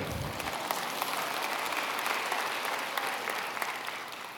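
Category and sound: crowd, audience clapping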